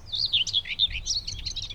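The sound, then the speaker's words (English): A bird sings a quick, continuous run of high, twittering chirps, clear, over a soft low background rumble. “Probably even a little bit of birdsong.”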